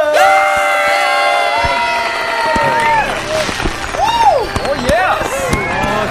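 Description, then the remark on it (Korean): A crowd cheers and shouts continuously to celebrate the release of a band's first full-length album, with high excited voices rising and falling over a dense wash of noise, loud throughout. “소리 질러!”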